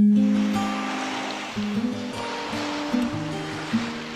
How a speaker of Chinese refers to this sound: 像这样的天气，不就是应该去到海边，配上一瓶冒着泡的冰汽水？再切上一盆冰西瓜，啃着雪糕，再望着起起伏伏的海浪，踩着滚热的沙子吗？